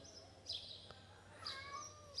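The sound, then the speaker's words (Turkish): A cat meows repeatedly because it wants to go outside, a few short high-pitched cries spaced across the moment, not loud, over a low steady background hum. “kedi kedi kardeşimiz Kakule şu anda dışarı çıkmak istiyor”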